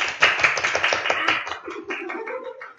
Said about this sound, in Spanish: Bien, todos. ¡Aplausos!